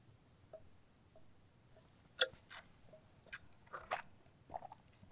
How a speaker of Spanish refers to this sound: pausa para el trago de café.